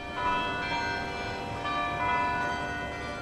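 A carillon of 49 bells rings out from Oslo City Hall by the harbour in Norway on the full hour, a sustained, overlapping wash of tones layering into a continuous melodic shimmer with no voices.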